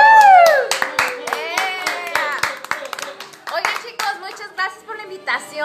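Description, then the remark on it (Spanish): An audience breaks into applause for a woman being introduced, a steady patter of many hands clapping, mixed with tonal whoops or music running underneath throughout. “Aplausos, por favor.”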